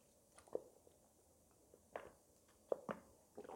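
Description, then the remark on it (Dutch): A few quiet sips and swallows of water, soft wet mouth clicks and gulps spaced irregularly over a few seconds, with no talking. “Ik neem even een slokje water, ik merk dat ik dat even nodig heb.”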